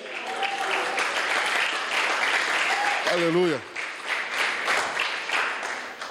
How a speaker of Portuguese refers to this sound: Pode aplaudir.